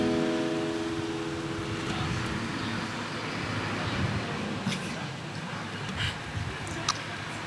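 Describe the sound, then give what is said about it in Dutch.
A truck rumbles by amid steady street traffic, its low engine drone strongest at first and fading into a broad wash of road noise, with a few light clicks toward the end. “Mooie vrachtwagen.”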